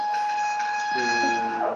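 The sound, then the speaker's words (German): A printer at work, giving off a steady high-pitched mechanical whine; about halfway through, a lower buzzing motor tone joins in and holds until the end. “Druckt hier jemand irgendwas?”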